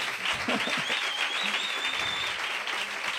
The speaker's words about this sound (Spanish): Y hoy, más que nunca, un aplauso a estos niños y niñas que están con nosotros hoy.